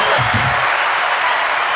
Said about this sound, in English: That's awesome that's the great part of taping in front of the live studio audience is just the applause you get.